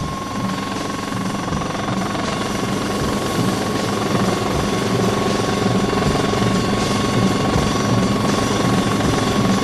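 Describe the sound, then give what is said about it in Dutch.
A helicopter in the film Facts on the Ground by Big van der Pol drones steadily overhead, its dense rotor and engine roar filling the whole stretch at a constant, fairly loud level with a faint tonal whine on top. “En je hoort ook nog dat geluid van die helikopter.”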